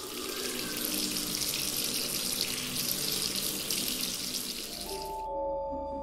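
A washroom tap turned on at full force gushes, a loud steady rush of water splashing into a sink for about five seconds before cutting off abruptly, leaving a faint low hum.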